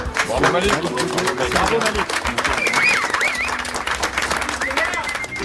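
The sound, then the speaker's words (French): An audience applauds with dense, steady clapping throughout, while voices and cheers rise over it, including some high whoops. “Et on va continuer à l'applaudir de hier à aujourd'hui.”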